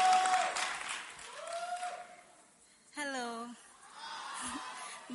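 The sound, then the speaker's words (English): Scattered audience applause rises and fades across a few seconds as a woman is welcomed forward to give a testimony, mixed with a lively crowd murmur and a voice calling out over the clapping. “Oh, please put your hands together for her as she comes.”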